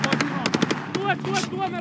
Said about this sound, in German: also wir hören da, wie Panzer durch verschneites Gelände fahren, Hubschrauber fliegen, Soldaten in weißen Schneetarnanzügen stampfen da durch den Schnee, Sprengladungen explodieren auf Straßen.